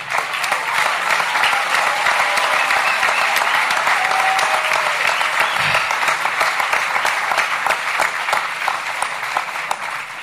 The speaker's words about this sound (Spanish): Fuerte el aplauso.